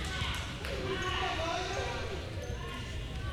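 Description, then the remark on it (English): A basketball bounces repeatedly on a hardwood court during a basketball game involving Snead State, amid a steady wash of arena crowd noise, with voices murmuring in the background. “The ball bounced high on her and yep.”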